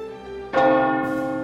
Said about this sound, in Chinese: 十点。如果教堂报时的钟声不是骗人的，当他重新再响一次的时候，他的灵魂已经不知道飘到哪儿去了。